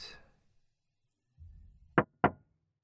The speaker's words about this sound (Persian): همون لحظه یکی زد به شیشه اول فکر اشتباه شنیدم سرم آوردم بالا از پشت پنجره برف گرفته دیدم یه ماشین کنار ماشینم با فلشر آبی ایستاده. دوباره زد به شیشه.